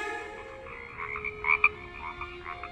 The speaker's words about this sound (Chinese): 小青蛙问妈妈：“ 呱呱，呱呱呱，妈妈。”